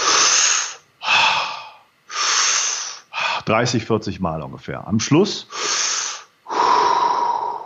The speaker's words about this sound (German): Das, die Beatmentechnik besteht aus drei Teilen. Der erste Teil ist vertieftes Einatmen und nur locker lassen